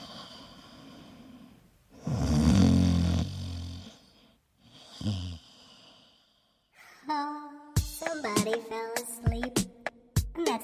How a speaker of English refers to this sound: That's the sound of them snoring. You could have said snoring, you could have said sleeping, you could have said breathing heavily through your face.